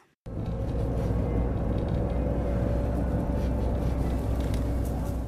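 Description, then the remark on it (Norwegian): Steady engine rumble and road noise from the back row of a moving minivan bus on bus route number four through the southern suburbs of Beirut, a constant low drone with a faint tonal hum, continuous throughout. “Fra vindusplassen på bakerste rad i en minivan langs bussrute nummer fire har jeg god utsikt over Dahya, de sydlige forstedene av Beirut.”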